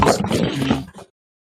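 A single loud sneeze bursts out with a rough, throaty force, lasting about a second before cutting off into silence.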